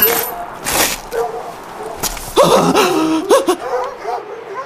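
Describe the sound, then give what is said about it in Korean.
A pack of dozens of wild dogs barks and yelps in overlapping, excited bursts, fairly loud, with rough scuffling noise between the calls as they charge across a parking lot. “바로 그때 시멘트 바닥에 대고 있는 귀에서 땅 울림이 들려왔다. 동물 수십 마리가 달려오는 소리였다.”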